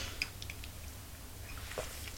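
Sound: sipping coffee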